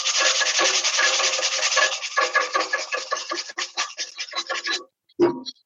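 Sandpaper rasping steadily over a small, round, very rusty barbecue to produce a fine dust: a dense gritty scratching that breaks into quick back-and-forth strokes, then pauses before one short final scrape. No one speaks.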